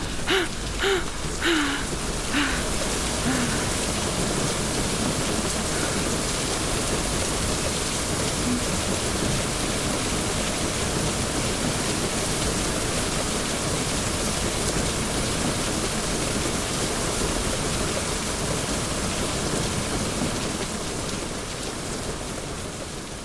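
Heavy, steady rain from a rainstorm with thunder pours down in a dense, unbroken hiss for the whole stretch, with a few brief sharp sounds near the start and only a faint low rumble underneath.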